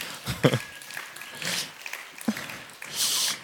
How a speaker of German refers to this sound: Ja, ja, ja, jetzt, jetzt, jetzt klatschen sie.